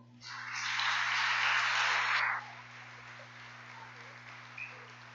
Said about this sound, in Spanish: Aplauda, Señor.